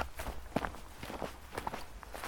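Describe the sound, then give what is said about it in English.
Footsteps walking along a hiking trail on Mount Gosford in southeastern Quebec, about half a dozen soft, scuffing steps at an unhurried, slightly uneven pace, quiet, with no voices. “But as I kept walking, I kept thinking about something.”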